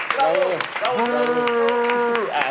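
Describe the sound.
Steady, loud applause welcoming an introduced guest, with many quick claps running throughout, while voices cheer and call out over it in drawn-out, pitched shouts.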